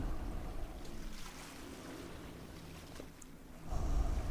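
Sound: sea waves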